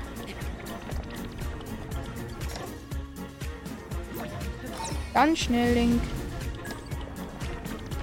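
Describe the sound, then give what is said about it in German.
Steady rain falls in a Nintendo video game featuring Link, a dense watery hiss running under a man's excited talking, with a sudden rising whoosh and a short tonal chime partway through. “Regen. Ja, endlich nach 1000 Jahren.”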